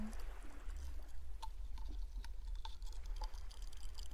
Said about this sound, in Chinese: 有气水里的小气泡，不停的冒出来呢，能感觉到吗？可乐的味道。